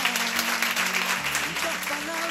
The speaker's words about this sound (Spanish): Un aplauso para ella.